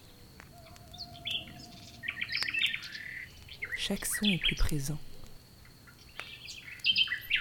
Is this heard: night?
yes